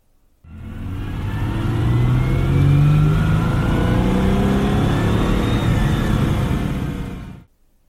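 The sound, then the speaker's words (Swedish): A Ferrari Dino's 2.4-litre V6 engine, with a 65-degree angle between its cylinder banks, revs and drones steadily for several seconds, loud, with rising and falling pitch as the throttle opens, then cuts off abruptly. “Här är ljudet från en Dino.”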